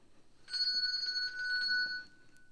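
A handbell is shaken quickly for about a second and a half, giving a bright, trilling ring that cuts off abruptly. It is fairly loud, with no voices.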